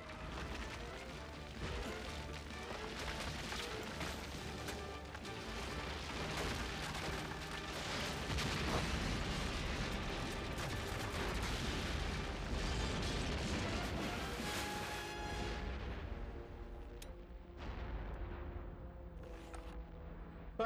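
A dense, roaring wall of explosions and crashing debris in a Spider-Man scene rumbles loudly for about twenty seconds, layered with bursts and mechanical clatter before thinning out slightly near the end.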